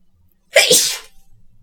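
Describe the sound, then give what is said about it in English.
A single loud sneeze erupts suddenly after a quiet moment: a short breathy intake followed by a sharp, bursting expulsion that trails off within about half a second. “What I completely, I completely lost my train of thought because I was sneezing.”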